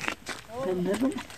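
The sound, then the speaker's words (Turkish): A lynx cub gives a short, wavering mewling call, a rising and falling cry lasting under a second, with faint rustling noise around it, in Küplüce village, Koyulhisar district, Sivas, Turkey. “Önce kedi sonra aslan sandıkları aslında bir vaşaktı.”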